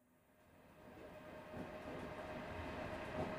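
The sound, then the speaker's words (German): A moving train rumbles steadily, growing louder, with rhythmic clatter of wheels over rail joints punctuating the low roar every second or so. No voices. “Ein vertrautes Geräusch, eine vertraute Bewegung.”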